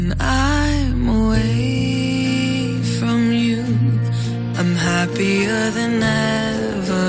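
A pop song cover plays at full, steady loudness, with a sung vocal melody over sustained bass, keys and a driving backing arrangement, with no talking over it.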